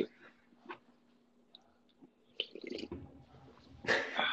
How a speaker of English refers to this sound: Hey, my hamster's trying to chew its way out.